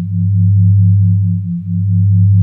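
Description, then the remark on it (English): A loud, steady low-pitched theta-frequency sine tone, layered on the phi ratio, hums continuously with a faint, even pulsing throughout and a brief dip partway through; there are no voices or other sounds. “So if you can listen to it through your ears and through your mind, why not vibrate these frequencies into our bodies? layered on top of the phi ratio.”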